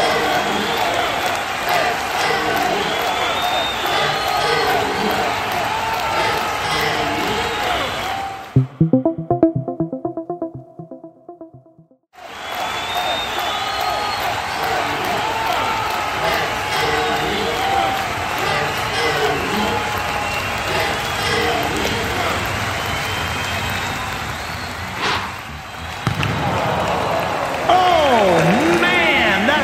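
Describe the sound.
A crowd cheers and claps loudly and continuously for a man about to throw a ball from behind a line, a dense roar of applause that drops out briefly for a few seconds, where a tonal voice-like sound appears, before surging back just as strongly.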